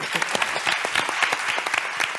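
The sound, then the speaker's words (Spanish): An audience applauds the four guests steadily, a dense patter of many hands clapping at a fairly loud, even level throughout, with no voices rising above it. “Muchas gracias, y un fuerte aplauso.”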